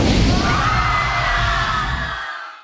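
A loud, booming explosion at the end of a stage performance, with deep rumbling and a broad roar of debris that holds steady for about two seconds before cutting off and fading. There is no talking.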